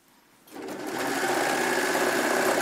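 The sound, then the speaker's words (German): A sewing machine whirs into motion after a brief quiet moment, then runs steadily and loudly through a thick layer of fabric with a fast, even mechanical hum and rattle, no voices. “Ähm, eine dicke, dicke Schicht Stoff, so wie jetzt bei dir gerade, mhm.”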